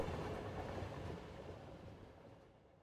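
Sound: train running on rails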